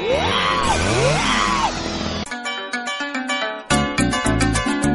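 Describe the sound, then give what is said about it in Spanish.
Loud screams and yells of terror rise and fall over the rumbling crash of a samán tree, cut with a chainsaw, falling very near a house, for about two seconds, then cut abruptly into a rhythmic burst of music. “En medio del suspenso hacia donde iba a caer, la motosierra se apagó y el árbol cayó tan cerca de la casa que todos gritamos terroríficamente.”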